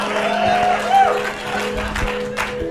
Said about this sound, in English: Biggest clap for laundry.